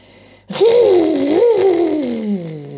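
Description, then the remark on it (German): A voice imitates the motor of a vacuum cleaner as Frau Usebuse vacuums dust with the suction tube, a sustained, wavering hum that rises and falls in pitch, starting abruptly and droning steadily for about two seconds before tapering off. “macht der Staubsaugermotor und hört Frau Usebuse aus dem Saugrohr und der Staub verschwindet im Staubsauger, im Staubbeutel.”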